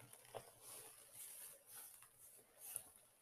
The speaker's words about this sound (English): It's the sound of a new leather jacket that I like so much that I wear it when I'm at home, dude.